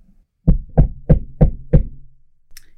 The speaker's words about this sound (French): il est 4 heures du matin, tout le monde est en train de dormir, et soudain, quelqu'un frappe à la porte.